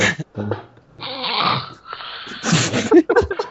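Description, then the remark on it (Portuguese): A man snoring loudly over a Skype call, with a few rough, rasping snorts and drawn-out breathy inhales over a few seconds and no talking. “roncando.”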